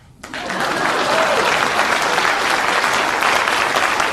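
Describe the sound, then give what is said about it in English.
A burst of applause starts after a brief quiet moment and quickly swells into steady, dense clapping from a crowd, sustained at an even loudness throughout without any talking. “That, that's applause worthy.”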